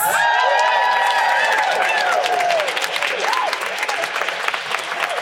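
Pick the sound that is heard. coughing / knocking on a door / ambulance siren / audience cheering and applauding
audience cheering and applauding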